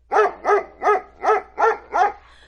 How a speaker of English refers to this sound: When he came to the tree, his dog stopped under it and barked.